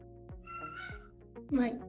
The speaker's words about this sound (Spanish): no sé si escucharon eso, pero mi gata gritó. Perdón.